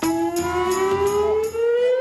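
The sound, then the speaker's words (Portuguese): A loud "snobbery alarm" sound effect: a continuous, buzzy siren-like tone that climbs slowly in pitch for about two seconds, punctuated by a few regular sharp pulses, with no talking. “acione o alarme de snobismo”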